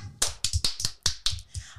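A brief round of hand clapping: about eight sharp, crisp claps in a quick, slightly uneven rhythm, fairly loud, with no voices.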